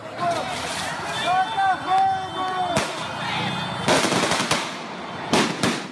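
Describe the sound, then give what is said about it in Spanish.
A crowd of hundreds of residents shouts and yells in a riot in the streets of Pacaraima against Venezuelan migrant camps, while fireworks burst with sharp, loud bangs, a few scattered pops at first, then a cluster of cracks near the end. “Cientos de residentes llenaban las calles. Gritaban, soltaban fuegos artificiales y saqueaban y quemaban con gasolina los campamentos improvisados de los migrantes.”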